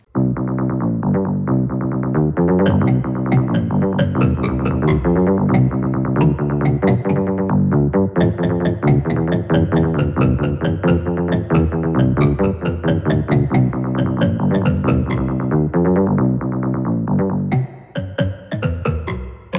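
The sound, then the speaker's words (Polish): Double bass music plays steadily, a run of deep, resonant plucked notes in a brisk rhythm, loud and continuous with no talking, thinning out and trailing off in the last couple of seconds. “Ale zanim dowiemy się, kto był mordercą, to mój kot chciał wam zagrać tutaj na kontrabasie.”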